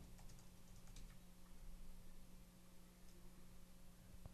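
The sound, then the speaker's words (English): Quick, irregular keystrokes clatter on a computer keyboard as someone types a search into Google, over a steady low electrical hum, with faint scattered clicks continuing throughout and no voices. “I'm typing it into the Google Data's Day.”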